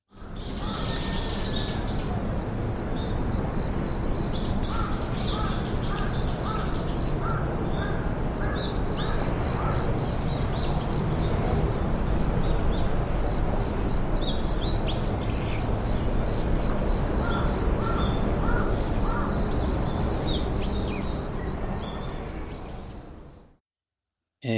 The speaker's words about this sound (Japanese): 聞いていただいたのは、福岡県春日市赤井川古墳の環境音でございました。